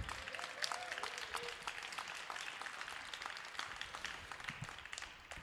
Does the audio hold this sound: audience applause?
yes